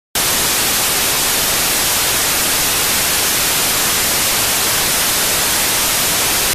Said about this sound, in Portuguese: Tivemos uma interferência aqui.